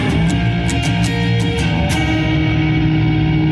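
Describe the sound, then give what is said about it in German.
A loud, distorted electric guitar rings out in a minor-key chord, struck several times in quick rhythm before being left to sustain and buzz on its own, heavy with effects. “Wow, und bevor die Rückkopplung kommt, lege ich lieber die Hand auf die Seiten.”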